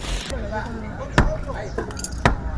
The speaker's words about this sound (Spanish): Mírenla toda feliz echando martillo.